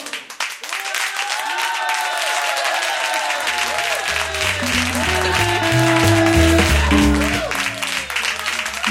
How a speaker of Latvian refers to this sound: Pat aplausos var dzirdēt to, ka mūsu šeit ir ļoti daudz, vai ne?